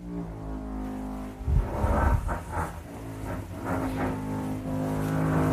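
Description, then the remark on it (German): Steady, droning power-drill whine from renovation work on the ground floor of a residential building, with a rougher, grinding burst partway through before the motor hum settles back to a constant tone. No one speaks. “Also schöne Bohrgeräusche, ja, manchmal hat man auch noch so Schleifen im Hintergrund oder Stemmhammergeräusche.”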